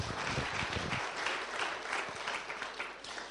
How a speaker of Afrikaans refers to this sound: Kan jy dit onthou? 50 jaar hierdie week gewees. Kom ons gee vir julle 'n hande klap.